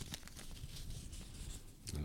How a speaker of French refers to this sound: Vous avez devant vous trois petits papiers avec trois thèmes. Je vous laisse en piocher un et nous annoncer le thème que vous aurez pioché.